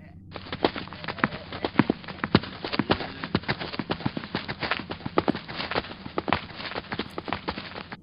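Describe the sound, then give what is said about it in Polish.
A group of people hurriedly runs across a street. Quick footsteps patter steadily in a dense run of sharp impacts with no pause. “pospiesznie przebiegła na drugą stronę ulicy i z trzaskiem zamknęła drzwi.”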